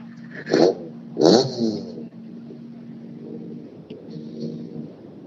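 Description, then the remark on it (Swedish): A car engine rumbles steadily, with two sharp, loud revs in the first couple of seconds before settling back into a constant low drone. “nej, det är en boxering av en bil.”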